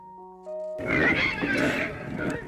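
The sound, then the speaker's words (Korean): After a brief steady electronic tone, a loud chaotic burst of squealing, grunting wild boars erupts over a rough rumbling, like a herd charging. Several very large black wild boars charge toward a house, raising dust. “이게 무슨 소리지? 어 저건 멧돼지인데?”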